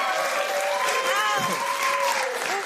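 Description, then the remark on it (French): A studio audience applauds a guest steadily, dense clapping at a strong, even level, with a few voices cheering or calling out over the ovation. “tous ces applaudissements sont pour toi.”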